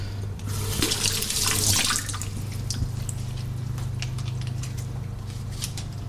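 Tap water runs steadily into a sink to rinse mussels, a broad hissing splash that swells briefly then settles, with scattered clinks and drips of the shells being rinsed beneath a low hum.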